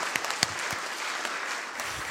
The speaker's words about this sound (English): So thank you very, very much. Would you let just clap your hands for yourselves?